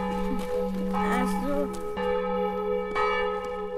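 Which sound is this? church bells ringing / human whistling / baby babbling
church bells ringing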